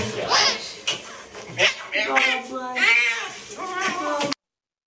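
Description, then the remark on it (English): An angry cat in a video yowls and growls loudly, its drawn-out wavering cries rising and falling in a continuous stream for several seconds before cutting off abruptly. “It's really bad when cats are like that.”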